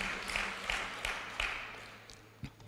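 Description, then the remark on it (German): An audience gives a round of applause for Jesus in a dense wash of clapping with faint rhythmic accents, gradually thinning and fading toward the end; no one speaks. “Klatschen ist gar nicht schlecht, dann kann man mal irgendwie was trinken zwischendurch.”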